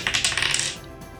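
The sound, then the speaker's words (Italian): Dice are rolled for damage in a tabletop role-playing game and clatter across a table in a quick burst of sharp, bright clicks and rattles, settling and fading after under a second. No one speaks. “Ehm, tira per il danno.”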